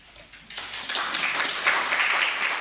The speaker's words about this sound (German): Ah, ist das nicht schön? echter Applaus on location von dem Publikum ganz direkt für den Redner